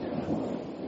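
A low, steady rumble of thunder rolls through a storm, dense and broad, filling the brief moment without any voices.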